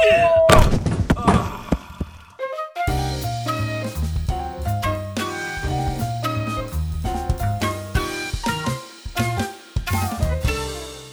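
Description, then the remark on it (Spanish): A heavy thud as a blind man with a white cane walks into a door lands in the first seconds with a brief clatter. Upbeat music then starts and plays through to the end. “No, espera, señor, no, esa puerta”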